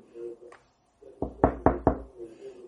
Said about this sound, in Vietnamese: Qua 2 phút, cửa phòng bỗng vang lên tiếng gõ.